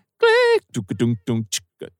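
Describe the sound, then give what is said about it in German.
A voice mimics a horse's whinny, used as a sample, with a short, wavering, quavering cry, followed by a few brief choppy vocal bursts and sounds. “wenn ich das Pferd aus dem Western nehme und, und da wird dann mein ähm, … Sample draus”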